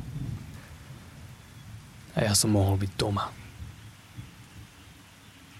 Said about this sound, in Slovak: Počúvať zvuky búrky a vedieť, že som v bezpečí.